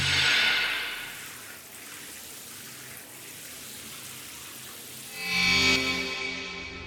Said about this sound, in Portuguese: Ainda deu tempo para ver quando os homens de preto chegaram ao banheiro e a água do chuveiro ir desaparecendo densamente aos poucos, para de repente não ser mais do que um simples chuveiro ligado ao máximo.